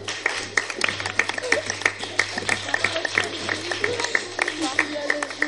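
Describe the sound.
Audience applause, a dense, steady patter of many hands clapping throughout, with some voices mixed in and a low constant hum underneath.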